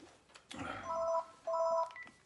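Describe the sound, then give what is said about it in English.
A mobile phone text message alert: two short electronic chimes in quick succession, each a bright warbling pair of tones, moderately loud with no talking over them. “I hate when text delivery systems come in on my phone.”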